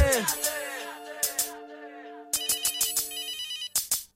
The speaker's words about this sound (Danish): Pludselig ringer telefonen, og det redder mit hjerte